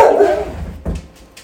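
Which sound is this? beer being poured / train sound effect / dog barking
dog barking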